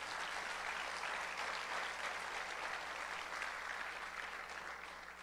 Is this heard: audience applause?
yes